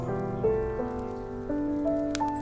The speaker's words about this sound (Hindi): अगली सुबह भी बारिश हुई